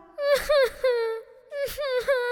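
A young girl cries and whimpers in two wavering bouts, with sharp sobbing catches between the drawn-out wails. The crying is loud, with no talking.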